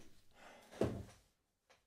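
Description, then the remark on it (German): A new office chair creaks and shifts with a dull thunk midway, a rough creaking rustle that stops abruptly, then one faint short creak after a pause. Fairly quiet, with no talking. “Ich habe einen neuen Bürostuhl. Ja, das höre ich. Er ist wesentlich gemütlicher. Aber er knarrt.”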